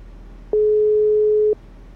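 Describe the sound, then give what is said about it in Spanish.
A single steady telephone tone sounds for about a second, clear and unbroken, over a low background hum, then stops with no answer. “Bueno, no contesta, ya contestaste.”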